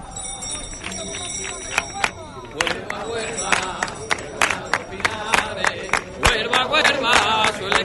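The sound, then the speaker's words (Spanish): A crowd claps palmas in a steady rhythm, the sharp claps loud, carried over a constant background murmur of many voices, as the crowd cheers the Blanca Paloma. “Y que todo el mundo escuche esas palmas.”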